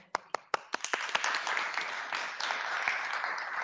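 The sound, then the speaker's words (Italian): Applause for the Lega from an audience begins with a few scattered, sharp claps that quickly swell into a steady, dense wash of many hands clapping, sustained at a moderate level with no voices. “E dunque un applauso alla Lega che ci ha permesso con questa convenzione con l'Alum di fare questo percorso.”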